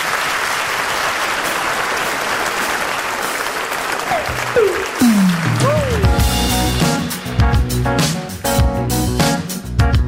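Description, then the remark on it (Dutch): An audience claps loudly and steadily for several seconds for Bessel Kok and Bart de Wever, then music with a bright melodic line fades in as the applause continues underneath and gradually thins out. “Geef ze nog een applaus.”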